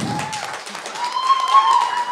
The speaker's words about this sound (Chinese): 掌声，掌声，掌声！哇，这个绝对大家要有掌声和欢呼啊！